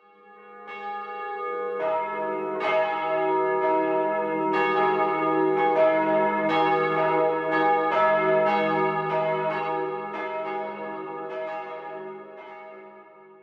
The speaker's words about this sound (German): Ja, also unschwer zu erkennen, das waren Kirchenglocken.